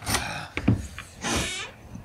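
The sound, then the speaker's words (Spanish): A few sharp, heavy knocks, struck brutally by a peasant, hit a wooden door, followed by a rough rushing noise. No one speaks. “Viéndote comprendo por qué golpeas tan brutalmente la puerta y me haces abortar un pensamiento que había concebido.”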